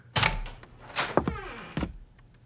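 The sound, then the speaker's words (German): A door opens with a short creak amid a few dull knocks, followed by a couple of firm footsteps on a hard wooden floor, fairly quiet, with no talking. “Ich höre, wie sich die Tür öffnet und vernehme seine Schritte auf dem harten Holzfußboden.”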